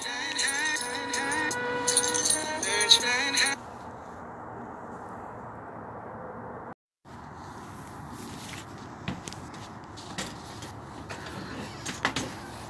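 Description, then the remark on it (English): A chair is grabbed and shifted, giving scattered scrapes and soft knocks over a steady room hiss after a brief burst of tonal music. A short dropout of silence falls midway. “Glad you grabbed the chair.”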